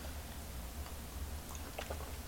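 Soft mouth sounds of someone taking a long sip of freshly brewed coffee without sugar, with a few faint wet clicks and slurps over a low steady background hum, no talking. On a warm, sunny Friday morning with a few clouds, 23 September 2022, in the Cuban capital.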